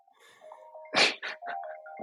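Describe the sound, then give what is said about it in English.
An Apple device's incoming-call chime rings in steady, melodic tones for about two seconds, interrupted midway by a few short, harsh bursts of noise; no one speaks. “I put do not disturb on one thing, and I got nine other fucking things going off here.”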